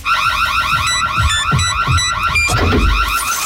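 A loud electronic radio contest alert alarm blares, rapid warbling siren tones repeating in quick cycles over low thumping beats, with no one speaking.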